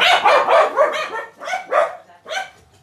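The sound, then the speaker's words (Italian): A dog barks repeatedly, about five or six sharp barks in a quick, uneven run, the first few tumbling together before two more spaced-out ones, with no talking. “Con i cani non si dà... Scusate, tanto.”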